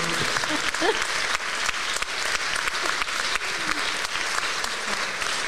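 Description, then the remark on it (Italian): Steady applause from a theatre audience for a performer's parents fills the room, many hands clapping densely and continuously for several seconds, with a faint voice or two briefly audible beneath it. “Allora un applauso ai genitori.”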